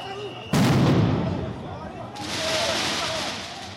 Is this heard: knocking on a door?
no